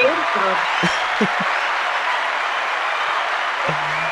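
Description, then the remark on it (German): Steady, dense applause from a crowd fills the whole recording, a continuous wash of clapping with a few brief voices surfacing near the start and once near the end. “Der Applaus ist so warm äh, wie das neue Intro von Fiverr.”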